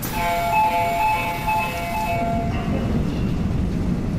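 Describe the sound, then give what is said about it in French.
A crowded morning subway train in Seoul, South Korea: a short electronic chime melody rings over a low mechanical rumble, then fades into steady rolling noise of the carriage moving, with no talking. “Le matin, en plein cœur de Séoul, les transports sont souvent trop bondés pour réussir à sauter dans une rame de métro ou un bus.”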